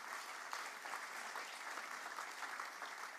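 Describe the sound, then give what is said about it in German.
Brief burst of applause for the person in charge of the bookkeeping team, brought onto a stage, a steady dense patter of many hands clapping at an even level throughout, with no voices over it. “Deswegen lass uns einen kurzen Applaus geben an der Stelle.”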